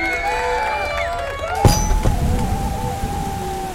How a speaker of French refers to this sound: Dehors, la pluie avait redoublé. Une sorte de déluge sur les pentes de l'Apremont. Des torrents d'eau s'engouffraient sur les chemins de terre.